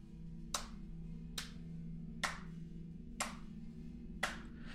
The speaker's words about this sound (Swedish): En sån slow clap är det som alla skurkar sysslar med.